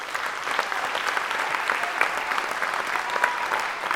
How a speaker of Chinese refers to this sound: 哎，请问一下制作人有那个罐头掌声吗？来给他帕波几嘞。